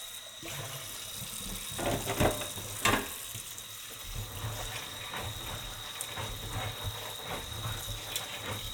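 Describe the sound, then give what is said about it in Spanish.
Steady running water pours and splashes continuously, with occasional clinks and rattles as soaked beans are rinsed in a colander under the stream to wash off the soaking water, fairly loud, with no voices. “Vamos a eliminar este agua de remojo, los vamos a lavar muy bien, los vamos a escurrir”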